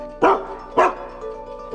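A dog named Altai barks three times at a laptop at steady intervals, each bark short, sharp and fairly loud, with quiet gaps in between and no talking.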